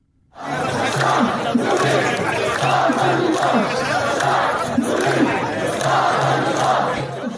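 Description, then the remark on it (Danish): A large crowd of several hundred Syrian protesters in the streets of southern Syria, waving flags and banners, chants slogans in unison demanding the removal of President Bashar al-Assad, a loud, dense roar of many voices with a steady rhythmic cadence running the whole time. “De vifter med flag, med bannere, de råber slagord, og deres budskab er, at de vil have landets præsident Bashar al-Assad fjernet.”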